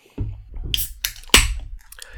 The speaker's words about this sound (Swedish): Jag tänker hälla upp en öl här.